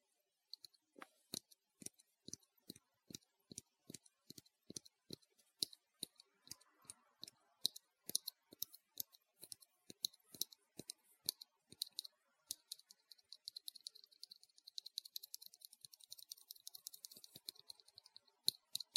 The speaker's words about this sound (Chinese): 先要打开了，听一下这个盖子的声音。